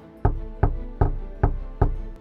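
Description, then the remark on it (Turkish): Five firm knocks on a wooden door, evenly spaced at a steady, deliberate pace, fairly loud with a brief resonant thud after each one; three people knock at night on the door of a house in a border village. “Karanlıkta tek ışık görünen ve bacası tüten evin bahçesine girdiler, kapıyı çaldılar.”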